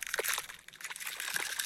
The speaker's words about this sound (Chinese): 哎，这是什么声音？三颗鸭宝宝的蛋壳裂开了。